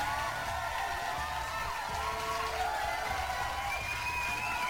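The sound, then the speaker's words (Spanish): A crowd cheers and whoops continuously, with a dense wash of clapping and shouts at steady loudness throughout, like a large audience celebrating, given as applause for the channel's Patreon supporters. “Vamos a agradecerle principalmente, claro que sí, a los Patreons, banda, que es imposible que se parta aquí el que es un aplauso a todos ellos.”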